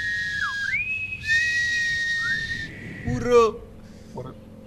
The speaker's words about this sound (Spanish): ¿Por, qué lo silba